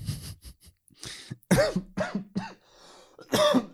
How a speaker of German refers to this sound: Habe also ich kurz an meiner eigenen Spucke verschluckt, ey. Ein bisschen zu, bisschen zu wild eingeatmet.